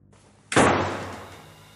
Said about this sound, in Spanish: La puerta se cerró de golpe en su cara. Le golpeó en toda la frente.